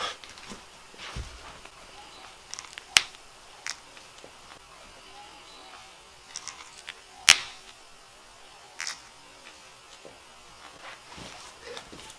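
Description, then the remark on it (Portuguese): A person's knee joint cracking and popping after nine months in Nepal: a handful of sharp, dry clicks spaced irregularly, two of them noticeably louder, against a quiet background with no talking. “Esse é o som do meu joelho depois de nove meses no Nepal.”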